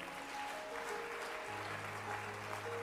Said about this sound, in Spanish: Dele fuerte palmas a Dios.